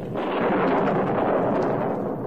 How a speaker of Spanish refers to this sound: Hay tormenta! oyo yo los rayos Sí, o si todavía no estoy sordo. Claro que lo oigo.